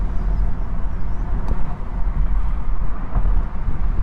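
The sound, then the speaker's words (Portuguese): A turbocharged car engine with a ZF 8-speed gearbox pulls hard under load with a dense, steady roar and rumble, while a faint, thin whistle rises above it as the turbocharger spools up. No one speaks. “Você sente a turbina enchendo, né?”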